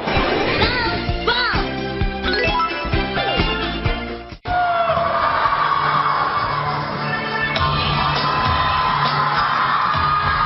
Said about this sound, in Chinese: 尖叫声不要停，好不好？来，给你们五秒钟的尖叫时间。